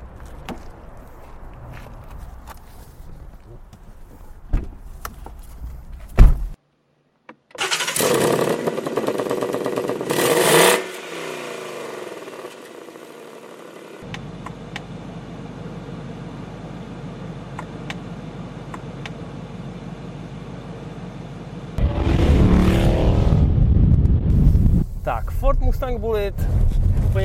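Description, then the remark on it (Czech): Clicks and a car door thud, then the engine of a green metallic limited-edition car with black wheels roars to life with loud revs and settles into a steady interior hum that swells again as the car accelerates on a very hot day. “to auto je skvělý a protože je dneska opravdu hodně vedro, je nejteplejší den v roce, tak všechno ostatní si řekneme za jízdy, protože my už se nemůžeme dočkat, až se tím autem bude moc projet.”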